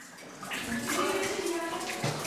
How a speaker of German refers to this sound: Es tropft in der Eisgrotte am Rhone-Gletscher, nur ein paar hundert Meter entfernt von der Furka Passstraße.